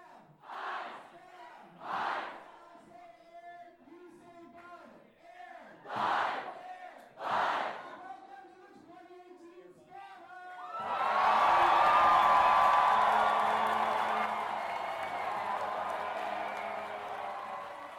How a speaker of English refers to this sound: And next, iHouse came in, whose team name this year is IHOP, or International House of People Against Acronyms. As they came in, they were chanting the word pancakes.